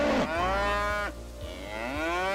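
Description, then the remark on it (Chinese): Three wild buffalo bellow angrily together in a loud, drawn-out, moo-like roar that dips in pitch partway through and then swells upward again, with no voices present. “三头野牛一起发出怒吼。”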